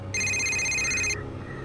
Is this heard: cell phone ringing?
yes